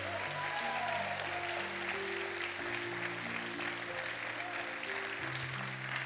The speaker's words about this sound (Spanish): Vamos, denle un aplauso de fe.